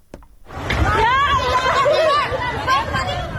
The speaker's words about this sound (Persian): این صدای وحشت مردم سیلزده دشتیاری است. زنی تا کمر در آب ایستاده و فرو ریختن خانه خشتیگلیش را نظاره می کند